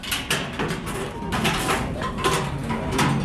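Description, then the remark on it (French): An old corrugated metal sheet serving as the door of a small brick workers' house on a vacant lot beside a construction site is dragged and rattled, producing harsh, clanking scrapes with several sharper metallic bursts over a steady noisy rumble, fairly loud. “Une vieille tôle ondulée sert de porte.”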